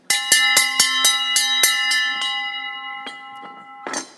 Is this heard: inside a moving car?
no